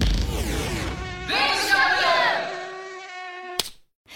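A mosquito's thin, high-pitched whine buzzes, its pitch wavering and swelling as it flies around, then steadying and fading before a sharp click near the end.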